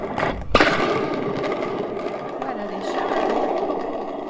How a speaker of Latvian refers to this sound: Vēl ir tādas arī pērkonītes. Dops eh, cilindrs, kuram ir piesiet atspere. Jā, un papurināt